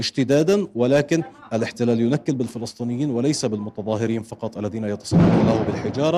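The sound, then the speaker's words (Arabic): A man speaks steadily in Arabic, then a single loud explosion from a homemade bomb erupts near the end, a sharp boom that cuts through his voice and trails off in a rough rumble. It happens during clashes with an Israeli raid in Nablus, around Balata camp. “هذا صوت آخر لانفجار عبوة ناسفة محلية الصنع واستهداف بقنابل غازية وقنابل صوتية للاحتلال”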